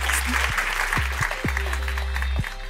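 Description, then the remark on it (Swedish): An audience applauds steadily, a dense crackling wash of many hands clapping at once, with a few low thumps mixed into the sustained patter. “Men en varm applåd framförallt till dig hemma.”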